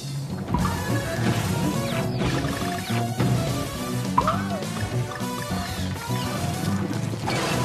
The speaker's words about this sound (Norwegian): Du, hva er det vi hører her? Donkey Kong Country Tropical Freeze, det nye Donkey Kong-spillet som i dag er ute i butikkene her i Norge til Nintendos